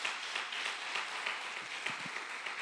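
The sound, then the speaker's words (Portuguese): A crowd claps steadily together in applause to the Lord, a dense wash of many hands applauding at once, moderately loud and continuous with a faint voice briefly rising underneath. “Dá um aplauso ao Senhor aí, se você crê nisso.”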